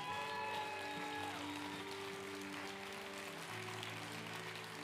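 An audience claps in a steady, dense wash of hand claps, layered over sustained keyboard or organ chords that shift pitch partway through. No one speaks.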